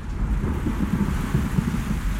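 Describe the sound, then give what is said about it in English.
Deep, rolling thunder rumbles steadily over a continuous hiss of rain, filling the whole stretch without a break and with no voices. “With a thunderous clap and a flickety flash, Johnny's rocketing down to a hellfire crash.”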